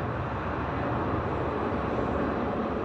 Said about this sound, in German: Meist sind aber die Triebwerke beim Anlassen so dominant, dass man die auch hier dann auf der Besucherterrasse hören kann